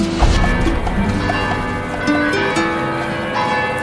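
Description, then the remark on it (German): A church bell in the tower of the church of Nuestra Señora de la Encarnación chimes the hour with a melodic sound, struck notes ringing out and long humming tones lingering between strikes, over a faint outdoor background, with no talking. “es eher ein melodischer Klang war der zu jeder Stunde sanft vom Kirchturm der Kirche auf Nuestra Señora de la Encarnación hinüberschlägt.”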